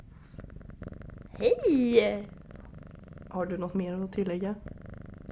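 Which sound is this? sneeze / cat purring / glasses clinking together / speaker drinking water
cat purring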